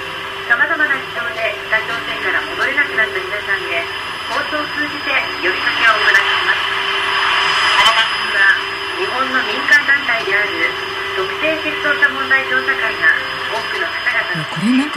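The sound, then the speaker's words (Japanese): A Shiokaze shortwave radio broadcast from Tokyo, received on a radio at the Yanggakdo Hotel in Pyongyang, North Korea, crackles through thick, constant static, with a muffled Japanese voice talking beneath the hiss and faint whistling interference tones drifting in and out. “この潮風が北朝鮮でね実際どのように聞こえるのかという貴重な音源があるので,、ちょっとお聞きいただけますか、ねはい、はい、こちらです。”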